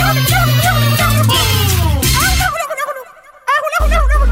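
A turkey gobbles in a rapid, warbling burst of loud, rattling calls, followed by a brief lull and then a short final gobble, over a steady low musical bed.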